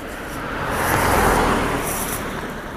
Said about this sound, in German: Ja, und das war jetzt ein Auto.